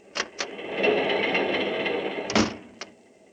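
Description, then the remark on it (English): An apartment door opens: a couple of sharp latch clicks, a sustained creaking sweep as it swings, then a solid thud and a final small click. No voices. “Sadie, the watchful maid, is not at all surprised when the door opens and Oscar Jaffe, played by Mr.”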